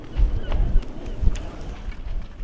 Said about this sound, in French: Les mouettes s'expriment, le vent souffle.